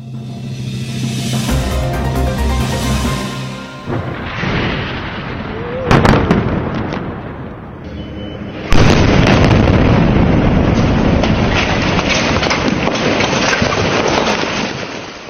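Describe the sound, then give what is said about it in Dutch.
Airstrike explosions in Gaza on a Monday evening, from a targeted Israeli army attack said to have destroyed a Hamas office: a sharp blast around the middle, then a second heavy boom that swells into a long, loud roaring rumble. A steady droning hum fills the opening seconds, with no talking. “Zo klonk het maandagavond in eh, Gaza. Bij een gerichte aanval van het Israëlische leger zou een Hamas-kantoor zijn verwoest.”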